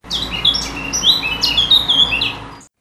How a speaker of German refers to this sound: Die Vögel zwitscherten.